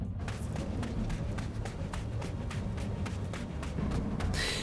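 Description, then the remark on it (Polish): Quick running footsteps of someone running up from behind, near allotment gardens, pound out a steady, fast rhythm, about a dozen strides in a row, over a low rumbling background with no one speaking. “Przeszłam przez kładkę nad skawinką i kiedy byłam obok ogródków działkowych, usłyszałam, że ktoś za mną biegnie.”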